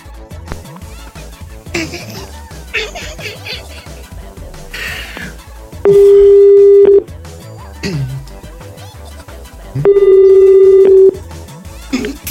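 A phone line rings as a call is placed: two long, steady ring tones about a second each, spaced a few seconds apart, loud, after a stretch of busy, cluttered background sound that could include dialing.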